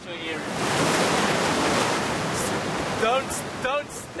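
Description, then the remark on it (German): Steady, loud roar of the returning tide washing over a rocky shore at the southernmost tip of Africa, swelling slightly mid-way, with brief fragments of a voice at the start and again near the end. “Die Flut kommt zurück. In ein paar Minuten wird das Wasser die Felsen wieder vollständig unter sich bedeckt haben.”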